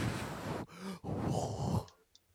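Loud, close breathing right against a microphone: a harsh, noisy exhale, a brief pause, then another long rushing breath that cuts off, followed by near silence. No talking.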